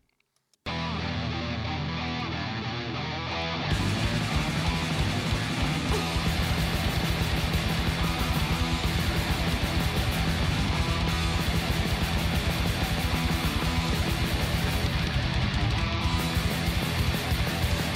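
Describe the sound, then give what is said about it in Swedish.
A loud Japanese heavy metal song from a newly released album: a dense, distorted guitar intro, then the full band crashes in after a few seconds with driving drums, staying thick and intense throughout, no talking. “som har släppt en ny skiva nu och en låt från den skivan låter så här.”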